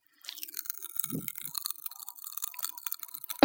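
Popping candy crackles inside a mouth: a dense, continuous fizz of tiny, sharp snaps at fairly low volume, with a few soft wet squelches and no talking.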